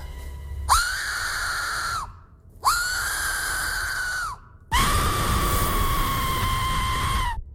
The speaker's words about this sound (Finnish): Toi on pilli.